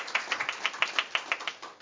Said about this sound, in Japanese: 拍手をお願いします。ありがとうございます。